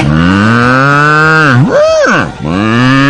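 A loud, drawn-out cow moo lasting about three seconds, low and droning, then swooping sharply upward in pitch midway before sliding back down to the low tone.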